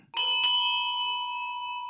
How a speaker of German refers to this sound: Sie sind das sind wie Kirchenglocken und äh, die ich jetzt zum Schluss angeschlagen habe, ist eigentlich mein schönstes Hochzeitsgeschenk.